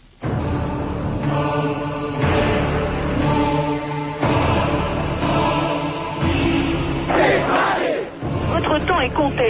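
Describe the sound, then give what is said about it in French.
A large crowd jingles bunches of keys like little bells, a message to the party leaders, in a dense, continuous metallic shimmer, mixed with loud cheering and chanting voices that swell and fall throughout. “C'est le message que la foule adresse aux dirigeants du parti en faisant teinter des trousseaux de clés comme autant de clochettes qui annoncent la fin d'un pouvoir.”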